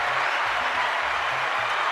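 A steady burst of crowd applause, dense and continuous clapping with a bright hiss-like texture, holding at an even loudness for about two seconds with no voices over it.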